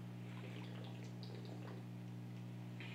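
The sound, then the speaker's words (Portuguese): Quiet trickling and small splashy sounds of water being poured, followed by faint sips, all over a steady low electrical hum with no talking. “um pouco de água, porque nesse fio aqui resseca mais ainda, né?”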